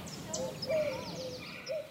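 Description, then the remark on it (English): Several birds chirp and whistle in short, overlapping calls against a soft outdoor hiss at the Huntington Library in San Marino, California, with a few brighter high chirps scattered through; the calls are fairly quiet. “Listen to those birds just chatting it up.”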